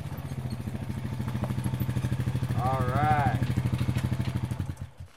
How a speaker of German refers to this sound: knattert auf ihrem Quad auf den staubigen Hof und hält vor dem Pferdestall.